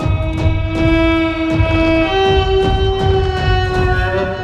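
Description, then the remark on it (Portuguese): A loud, sustained orc war horn blast holds a brassy, buzzing tone that steps slightly higher halfway through, while heavy rhythmic thuds of two heavily beaten drums pound steadily beneath it, as orcs come out of a cave preparing for battle. “e uma trombeta forte e soada.”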